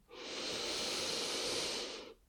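A single long, steady inhalation taken during a guided breathing exercise, a soft airy hiss lasting about two seconds before fading out, with no talking.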